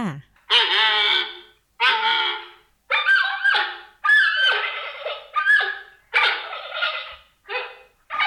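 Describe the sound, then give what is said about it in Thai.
A giant panda gives a rapid series of about seven loud bleating calls, each under a second, with short pauses between them and no talking. “แหมไม่เพียงแต่ตัวกลมๆ รูปร่างหน้าตาน่ารักเท่านั้นนะคะ เสียงร้องของหมีแพนด้าก็อย่างน่ารักด้วยล่ะค่ะ การร้องของเจ้าหมีแพนด้าก็มีตั้งแต่ลูกหมีที่ร้องหาแม่แม่หมีที่ร้องหาลูก แล้วก็เสียงเจ้าหมีที่ร้องหาคู่ค่ะ”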